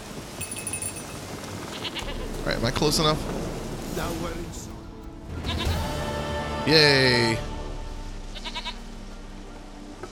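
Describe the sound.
A goat bleats a few times while being petted, its wavering cries mixed with a person talking and an excited exclamation.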